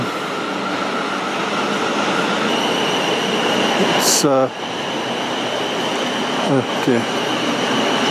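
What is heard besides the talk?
train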